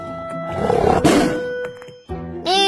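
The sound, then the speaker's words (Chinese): A tiger roars, a loud rough growl that swells into a harsh, rumbling burst and then trails off, followed by a short rising snarl at the end. No one speaks. “忽然，一只老虎出现了，两个人四目相对。”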